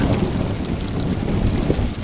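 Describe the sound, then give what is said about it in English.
Steady, dense rain pours down in a continuous wash of noise, with a low rumble underneath like wind or thunder. Nobody speaks. “And and then you know eventually you find that it starts to uh, that it actually starts to to to rain.”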